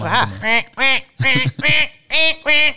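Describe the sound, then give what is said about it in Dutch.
A person imitates the call of Martians from a film, about six sharp, nasal squawking bursts in a quick, steady rhythm, loud, sounding much like a frantic duck quacking. “Ik, mijn moeder werd altijd helemaal gek van me als ik dat geluid van die Martians nadeed.”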